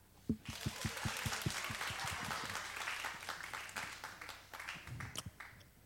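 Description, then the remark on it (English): A crowd breaks into applause, starting with a few sharp, rhythmic claps that quickly swell into a dense, steady wash of clapping before thinning out into scattered final claps. “Everybody clap.”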